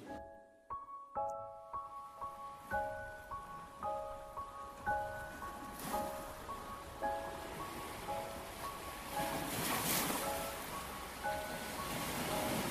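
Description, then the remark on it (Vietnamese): Steady wash of ocean waves lapping on a white-sand beach at a wedding, swelling softly now and then, with a gentle plucked melody of repeating notes playing over it throughout. “Tiếng sóng vỗ rì rào Tiếng bãi cát trắng mịn Ánh nắng chân hòa kèm theo những cơn gió nhẹ nhàng Mang theo hương vị của biển khơi thoảng qua”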